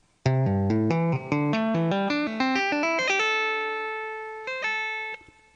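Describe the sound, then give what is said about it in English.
A clean electric guitar lick: a quick run of bright picked notes climbing upward, settling into a long ringing note, then one last short note. No talking. “But I'm keeping it clean today because I'm trying to play with cleaner tones so that everything comes through nice and clean.”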